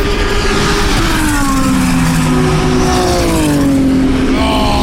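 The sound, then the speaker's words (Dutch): A loud racing engine screams past on a track, its pitch sliding down as it goes by, then another high whine rises near the end over steady roaring track noise. The passing car is the one Valentino Rossi drives. “Ja, dat geluid was mooi.”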